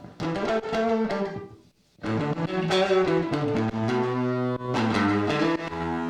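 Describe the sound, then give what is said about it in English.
A lone distorted electric guitar, soloed from the mix, plays the song's first-demo lead, recorded DI and reamped: sustained bent notes and quick runs, loud, with a brief pause before the phrase resumes, no other instruments or voices. “So, funnily enough, this is the first guitar solo I did for this song on the first demo I did.”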